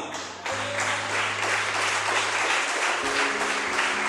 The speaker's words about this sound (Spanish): A su nombre, denle una aplauso a quien tenga esta